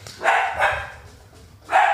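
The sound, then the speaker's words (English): Dogs bark three times, two sharp barks in quick succession, then a pause before a third loud bark. No one speaks over them. “Hey, puppies!”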